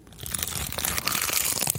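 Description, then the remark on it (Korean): A crisp crunch as food is bitten, followed by steady crackly chewing that continues without pause for a couple of seconds, with no one talking. “저 씹는 게 약간 어 좀 다른데.”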